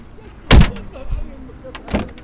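A heavy door of a black taxi van slams shut, followed a moment later by a second, softer thump, with faint vehicle and cabin rustling in between, as the taxi picks up a passenger in La Monnaie.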